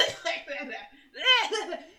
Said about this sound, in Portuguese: Eu fico muito ofegante, muito ofegante. Aí eu começo a tossir, porque eu tenho a minha tosse alérgica. E aí eu começo a tossir, as pessoas acham que eu já tô com Covid pé na cova e eu não estou.